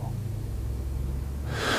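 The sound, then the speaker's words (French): A single deep breath rushes in near the end of a breathing exercise, an airy burst after a low, steady hum, with no talking. “Vous bloquez la respiration pendant 3-4 secondes et vous expirez avec le ha en visualisant que ça sort toutes les impuretés physiques, psychiques, émotionnelles, énergétiques de votre corps.”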